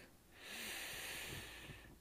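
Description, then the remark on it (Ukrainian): A single long, airy deep breath in, taken with eyes closed, swelling in over about half a second and held steady for over a second before fading, with no talking. “Закрий очі, зроби глибокий вдих”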